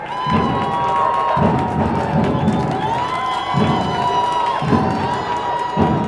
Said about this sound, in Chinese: 上学的路上，才走到一半，忽然听到了打鼓的声音，还有欢呼声，好热闹哦！